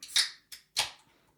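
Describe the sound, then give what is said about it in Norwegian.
A can of Frydenlund beer being opened: a sharp metallic crack, a short hiss-like burst, then a louder fizzy pop that fades, with no voices present. “Ok, da, det, da tar jeg første boksen her.”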